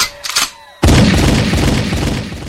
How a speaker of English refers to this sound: All right, can I get a gunshot for this though?